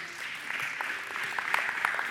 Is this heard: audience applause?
yes